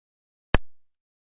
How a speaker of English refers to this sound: Let's play another clip from the chamber, and this this one is of you firing a starting pistol. I'm going to play that again because we can barely hear that.